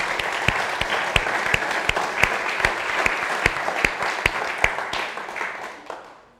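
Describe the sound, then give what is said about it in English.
An audience applauds steadily, a dense wash of many hands clapping with a few sharper claps standing out, before fading away over the final second or so. “And so, um, can we just give them all a round of applause and just say thank you again?”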